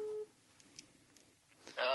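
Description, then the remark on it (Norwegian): A steady ringback tone of an outgoing phone call to state secretary Ellen Bø sounds briefly through a speakerphone, then cuts off into quiet line hiss before a voice picks up at the end. “Eh, så håper jeg at han da tar den telefonen, da få den på han høyttaler.”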